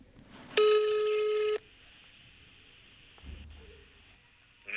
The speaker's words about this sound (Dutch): Ik denk dat het hoogste tijd is om met, uh, met Castricum, met Niels te gaan bellen